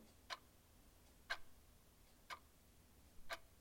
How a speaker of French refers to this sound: Dans le manoir, c'est le silence. Seule la pendule de la grosse horloge du salon balance en émettant un clic, clic, clic régulier et lointain.